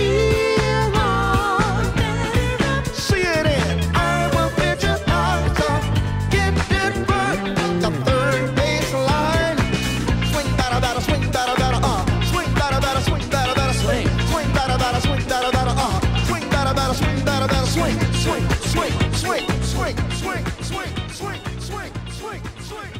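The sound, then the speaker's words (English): A retro, 1970s-style TV theme song plays loud and continuous, with a full band, steady bass and busy melodic lines, easing slightly in volume near the end. No one speaks. “this sounds like this sounds like the the theme song to a 70s TV show that like never aired.”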